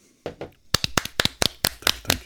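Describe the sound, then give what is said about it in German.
A short burst of hand clapping after the announcement of Beethoven's Symphony No. 6, the Pastoral: about a dozen crisp claps in a quick steady rhythm, like one or two people applauding briefly. No one speaks. “Ich bitte um kultivierten Applaus.”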